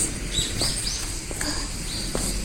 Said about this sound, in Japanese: 鳥が鳴いてますね。